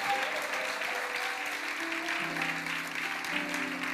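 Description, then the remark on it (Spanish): An audience applauds its youth during a Spanish-English church service, steady dense hand clapping filling the whole stretch at an even level, with sustained organ-like tones holding underneath and shifting pitch partway through. “So let's give a strong hand clap to our youth.”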